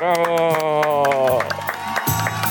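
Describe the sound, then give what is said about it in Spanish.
A loud, sustained shouted voice gives way to crowd noise, with a burst of applause and cheering for the president rising toward the end, energetic. “Un aplauso, por favor, a nuestro presidente que le echó ganas.”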